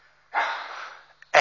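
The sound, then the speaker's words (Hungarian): A single loud sneeze: a sudden burst of harsh, breathy noise that slowly fades, followed by another short, sharp burst right at the end, with no talking. “egészségedre.”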